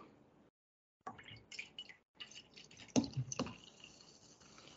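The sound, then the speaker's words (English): Soda pours into a cup, a wet, gurgling splash with fizzy crackle that starts after a short silence and swells in uneven bursts, with a few louder slurps near the end. “Pour me some soda.”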